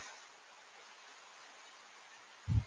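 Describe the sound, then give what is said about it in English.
Steady, soft hiss of rain falling without a break in the rainy season, fairly quiet and even throughout, with a brief low thump near the end. “Maybe right now you're hearing some uh, the rain noise.”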